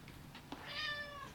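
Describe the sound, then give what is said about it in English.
A single drawn-out cat meow, clear, rising then gently falling in pitch over about a second, with no talking. “Kitty.”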